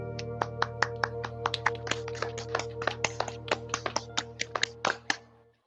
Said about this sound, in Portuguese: Uma saudação, uma lembrança ao nosso caro amigo Fernando Ferrique Ocoveira e pedir uma salva de palmas.